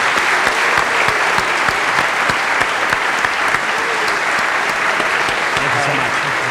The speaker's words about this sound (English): And can we have one round, last round of applause for all the contributors tonight, the questions,